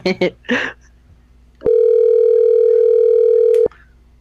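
A couple of quick spoken bursts, then a loud, steady telephone tone holds for about two seconds before cutting off abruptly as a phone call is placed. No separate dialing beeps stand out.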